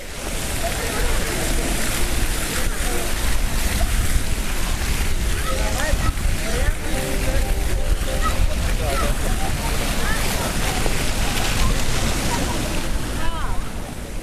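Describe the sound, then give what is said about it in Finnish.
Steady, rushing splash of the fountains on Independence Square (Maidan Nezalezhnosti) in central Kyiv, Ukraine, on a hot early-June day, with the voices and playful chatter of children playing in the water throughout, under a constant wash of outdoor noise. “Itsenäisyyden aukion Maidan Niesalesnostin suihkulähteet soivat ja lapset leikkivät vedessä.”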